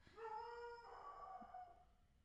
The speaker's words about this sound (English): Jeez, Teak. That scares with... me. It's a little scary. It kind of scares me because he doesn't bark often. Very aggressive.